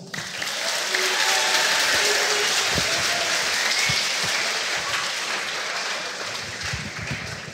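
A crowd claps steadily for several seconds, a dense, loud patter of applause that holds at an even level before easing slightly toward the end.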